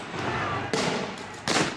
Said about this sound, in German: Tränengas, Schüsse auf Kopfhöhe, Manche Polizisten zielen offenbar bewusst auf die Augen von Demonstranten, die Opfer, Randalierer, aber auch Unbeteiligte.